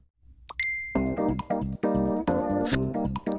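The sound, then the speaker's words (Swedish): A phone notification chime, heard when a comment notice comes up on the phone: a bright electronic ding rings out clearly, followed by a short run of melodic tones, fairly loud with no talking. “Så kommer den upp i, som en notis på våra telefoner. Så kommer det låta någonting sån här.”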